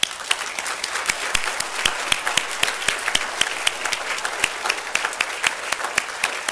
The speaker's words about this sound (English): Well, I'll tell you what I want to do. Just stay standing. I want us to give us applause.